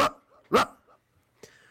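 A dog barks three times in quick succession: two loud, sharp barks close together, then a softer, shorter bark after a brief pause. No voices accompany it.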